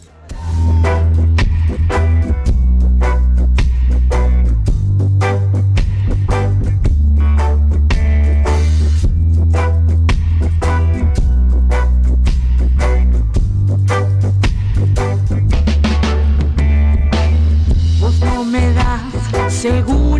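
A new song by a band plays loudly and continuously, with a heavy, throbbing bass line, steady punchy drum hits and a dense full-band mix filling the whole stretch.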